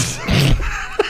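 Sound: sneeze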